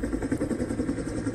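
A steady helicopter engine drone heard in a forest, gradually growing louder, with a rapid, rhythmic thudding pulse from the rotor, moderately loud, with no voices.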